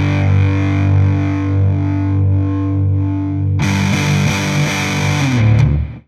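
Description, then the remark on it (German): A sustained, distorted electric guitar chord played through an overdrive pedal sounds alone, first dark and muffled with the treble rolled off by the tone control, then suddenly turning bright and fizzy as the highs open up before it cuts off. “Ja, klingt für mich nach einem High Shelf, oder? Also der macht nicht mehr oder weniger Bass, sondern er dreht einfach nur Höhen weg.”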